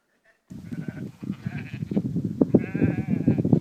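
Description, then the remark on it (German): Several sheep bleat over one another in fog, their wavering cries overlapping in a busy chorus that starts abruptly after a brief silence and keeps building. “Es ist nebelig, die Schafe sehen nichts, aber wenn der Hirte ruft, da springen die Schafe zum Hirten”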